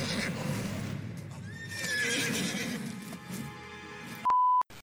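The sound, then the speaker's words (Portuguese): A horse, one of Madame Maxine's winged horses, whinnies loudly and at length over a busy, rustling background with some hoof-like clatter, then an abrupt, loud electronic beep cuts in near the end. “Então, dados os avisos aí, vou voltar lá devolver a bracha da Madame Maxine porque ela é muito cuidadosa com seus cavalos alados.”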